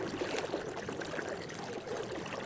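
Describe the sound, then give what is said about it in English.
Running water trickles and splashes steadily for the whole moment, a continuous bubbling wash with no voices, cutting off abruptly at the end. “Oh, oh the water's tickling my private parts.”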